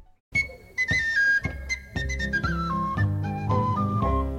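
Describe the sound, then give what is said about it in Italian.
The intro of a lively Irish folk song about whiskey starts up, a bright whistle-like melody skipping over strummed, rhythmic accompaniment with steady beats. Purely instrumental, fairly loud, with no voices. “una di queste è Whiskey You're the Devil, cantata dai … che adesso andiamo subito ad ascoltarci”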